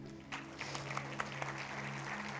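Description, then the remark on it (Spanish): A crowd applauds steadily for a couple of seconds, a dense patter of many hands clapping with a few sharper claps standing out, soft over a low steady hum. “Dame un fuerte aplauso a ellos.”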